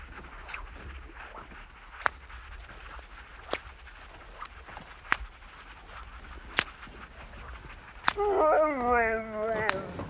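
Sled dogs pulling a couple of dog sleds in from the sea toward a hunting hut at nine in the evening give sharp, scattered yips and barks every second or two, then break into a wavering, whining howl near the end, all over a low, steady outdoor murmur.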